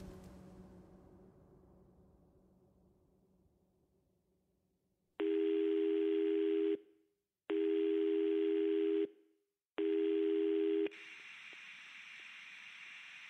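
A mobile phone call ringback tone repeats three times as loud, steady electronic beeps with short pauses between them, followed by a hissing line, as someone calls back on a mobile phone. Nobody speaks.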